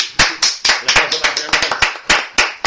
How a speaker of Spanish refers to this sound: yo lo tengo que decir, un aplauso para el gran